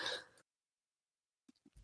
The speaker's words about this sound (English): Just, I'm still coughing.